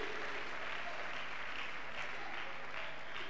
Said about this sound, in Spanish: Da un aplauso grande al Señor, amén.